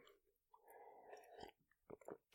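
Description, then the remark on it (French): Soft mouth sounds of someone taking a small sip from a drink, a brief slurp followed by a couple of quiet swallowing gulps and a sharp click at the end. “Et j'en profite pour boire une petite gorgée.”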